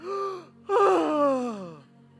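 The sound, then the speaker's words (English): A person performs a loud, drawn-out gasp: a short voiced intake, a brief pause, then a longer strained breath that slowly trails off, like air released after holding it, as people in a car let out breath held while driving past a place. “Because as soon as you got to that place, you'd hear everybody go,”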